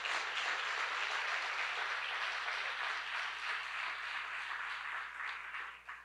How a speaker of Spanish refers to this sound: Dale, un aplauso, así que además del fuerte aplauso.